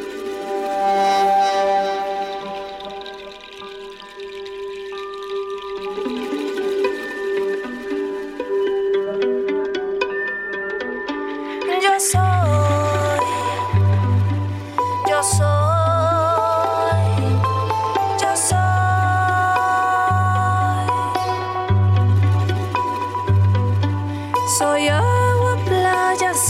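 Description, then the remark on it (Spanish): An instrumental song intro opens with soft sustained melodic tones, then a deep bass and steady percussion beat kick in about halfway, driving the music louder without any singing. “Vamos ahora con el porque sí musical de Dani”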